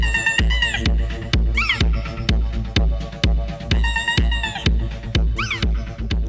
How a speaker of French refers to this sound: Ça, c'est un gars qui joue de la batterie en y rajoutant des accessoires un peu particuliers. Là, c'est un cochon siffleur en plastique.